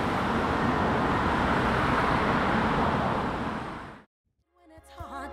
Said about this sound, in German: Und unterdessen kreucht der stockende Verkehr weiterhin jeden Morgen und Abend durch Nettstel und durch die anderen Glaner Dörfer.